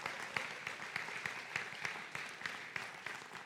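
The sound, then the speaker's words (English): Audience applause on grandparents' day, given by people standing to those seated: a dense, steady wash of many hands clapping at once, with sharper individual claps popping out at an irregular pace, sustained at a moderate level throughout. “Give them the most incredible clap and appreciation and thumbs up because it's grandparents' day.”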